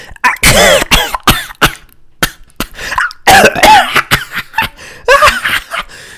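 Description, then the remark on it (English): A voice imitates breathless, wheezy coughing mixed with strained laughter, mimicking someone laughing so hard they can't breathe: a run of sharp, irregular bursts and gasps, loud, with no spoken words. “But I'll just say something that's so funny to a certain individual, they'll just like, they can't breathe, you know? They're just sitting there. This is what it sounds like when I break someone.”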